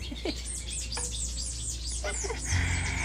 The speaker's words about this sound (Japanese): わーわーわーわーわ鳥ちゃんが 鳥ちゃんが一緒にお話ししようって